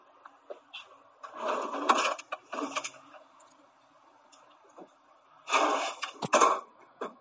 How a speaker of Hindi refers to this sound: ये वही ड्रॉर की आवाज़ है जिसकी मैं बात कर रहा था पहली बार यूज़ किया था स्लाइडिंग डोर वाले इफेक्ट को आई मीन ड्रॉर के इफेक्ट को